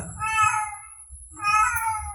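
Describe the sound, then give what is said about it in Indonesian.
A cat lets out two long, drawn-out meows in quick succession, loud, over a faint low rumble in the background. “ada kucing hmm. nyong nyong nih ini kan backson tuh, oh, backson backsound ya”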